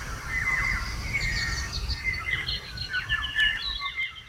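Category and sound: bird, birds singing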